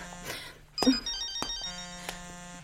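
telephone ringing

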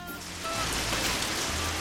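rain falling

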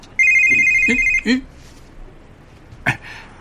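mobile phone ringtone ringing

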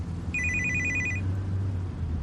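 phone ringing

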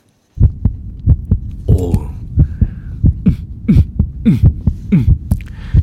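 heartbeat sound effect

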